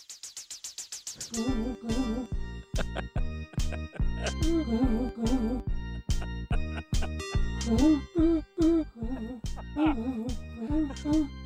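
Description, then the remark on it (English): An upbeat new wave karaoke backing track, with night noises laid over it, opens with a quick rising synth arpeggio, then settles into a steady, punchy drum beat under bright synth chords and a wavering lead melody. “I grabbed, I grabbed a new wave uh, karaoke bed here. Everybody's going to know this song. Okay. With your night noises over top of it.”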